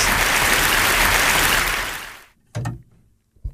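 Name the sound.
audience applause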